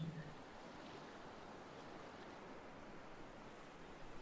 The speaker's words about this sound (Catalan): Apareix l'onada, et mulla i se'n va.